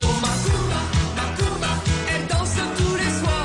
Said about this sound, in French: J'ai ressorti ma playlist des années 80. Voici l'interview musique des années 80. Hein, Attention, premier extrait.